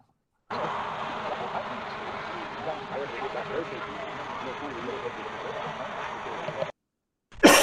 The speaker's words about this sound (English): started raining. Jericho walk. Kind of stinks. But we're continuing. We're continuing our Jericho walk around. We're not stopping. Pushing through the rain.